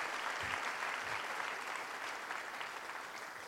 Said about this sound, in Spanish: Miren, nueve servicios y cuánta gente guapa y linda está en este lugar. Desen un aplauso.